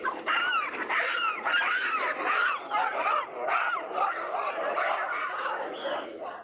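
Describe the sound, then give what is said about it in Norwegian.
A loud, continuous melee of harsh barks, screeches and yelps from several baboons at once, overlapping like a fight, with no pause throughout. “Det her er faktisk bavianer også.”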